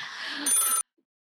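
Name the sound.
telephone bell ringing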